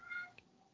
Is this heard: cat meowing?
yes